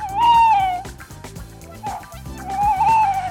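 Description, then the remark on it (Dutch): A tawny owl hoots twice, a long wavering hoo at the start and another quavering call near the end, clear over a low droning background. “De roep van de bosuil hoor je in veel spannende films.”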